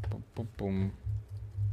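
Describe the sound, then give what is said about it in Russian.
A few quick clicks of typing on a computer keyboard, followed by a short voiced hum from someone, all over a steady low background drone. “У меня что, клавиатура отключилась?”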